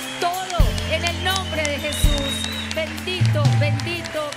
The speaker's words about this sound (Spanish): Y si eso es lo que tú crees, levanta tu voz con un aplauso de gratitud y alabanza.